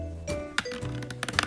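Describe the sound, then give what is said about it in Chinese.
A toy laser gun's electronic color-change sound: quiet, buzzy, noise-like tones with steady humming pitches, broken by a few sharp button clicks. No one speaks. “像是杂音一样，有点像噪音。”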